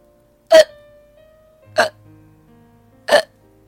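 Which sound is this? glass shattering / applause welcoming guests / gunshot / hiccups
hiccups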